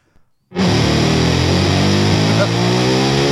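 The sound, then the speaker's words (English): A car engine roars in abruptly after a brief quiet moment, then holds a loud, buzzy, sustained rev whose pitch sags slightly over the next three seconds. No one speaks. “it's revving up. Head on.”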